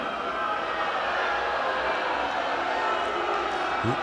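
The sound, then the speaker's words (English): A large crowd boos Republican politicians in a steady, sustained roar of many voices, dense and continuous throughout with no single speaker standing out. “Listen to those people booing all of these loser Republicans who might as well be Democrats.”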